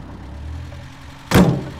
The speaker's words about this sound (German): Da draußen fahren Autos vor. Vier Stück. Scheinen Polizeiwagen zu sein.